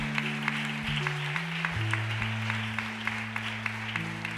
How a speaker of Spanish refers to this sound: ¿Cuánto le da un aplauso fuerte a papá?